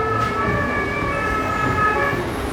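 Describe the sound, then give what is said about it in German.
A fire engine siren wails with steady, high-pitched tones over a constant rumble of road traffic, staying loud throughout the short stretch. “Wo brennt es da? Auf jeden Fall fährt er die Feuerwehr.”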